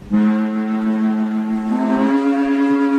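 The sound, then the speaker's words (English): A just-cleared E flat organ pipe, being tried out, sounds a loud, steady, reedy note rich in overtones, holding for about three seconds and shifting slightly higher in pitch partway through, with no voices. “Have you cleared that E flat pipe yet?”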